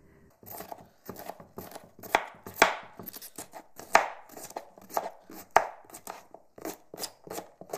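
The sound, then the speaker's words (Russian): Rapid knife chopping on a cutting board, dozens of crisp, even taps in a steady fast rhythm, as 250 grams of cabbage are sliced into thin strips. No one speaks. “Двести пятьдесят грамм капусты, тоже нарезать соломкой.”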